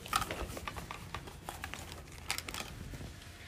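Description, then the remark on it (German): Quiet rustling and clicking as products shift and knock together while someone rummages through a small pouch printed with pandas to pull out a pen, with irregular crinkly bursts and no talking. “Aber ich habe jetzt da alle anderen Produkte einfach mal reingeschmissen. Und ich werde jetzt da einfach mal eins rausziehen.”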